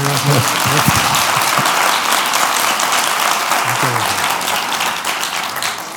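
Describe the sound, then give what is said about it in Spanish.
Sustained auditorium audience applause welcoming cartoonist Forges (Antonio Fraguas de Pablo), a dense wash of many hands clapping at steady loudness for several seconds, with faint voices mixed in beneath it. “Aplaudan, aplaudan.”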